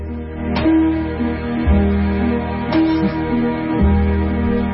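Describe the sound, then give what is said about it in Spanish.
A song plays at full volume, with sustained melodic notes over a steady bass line and a sharp accent roughly every two seconds marking a slow, swaying rhythm; no talking over it. “¿Esa canción o una canción que suena así?”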